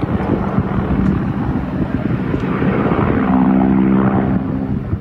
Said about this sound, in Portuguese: Com voos rasantes, helicópteros dos Estados Unidos tentam encontrar os criminosos que conduzem os imigrantes.